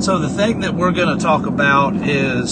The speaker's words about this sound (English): If you happen to hear a humming noise in the background, it's because I am currently on the road. So that's what that noise is.